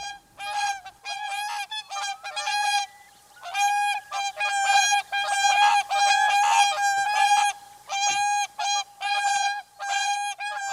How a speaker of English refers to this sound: Some of them spend the nights on the gravel pits at the point of Ayre, and to hear them flying over with their necks stretched out, bugling away, is one of the great winter sounds. So, tweet of the season Whooper Swan.